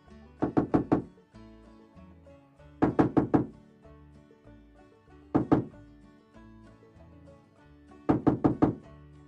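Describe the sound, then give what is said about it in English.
Knocking on an apartment door in bursts: four quick raps, a pause, three more, a single knock, then four again. The knocks are loud, with no voices. “He's not answering the door!”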